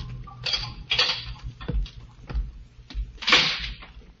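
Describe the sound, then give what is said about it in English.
Several footsteps sound in a prison death-house corridor at an uneven walking pace, each a sharp knock with a low thud, and a door opens among them. No one speaks. “Then footsteps sound in the corridor. The door opens.”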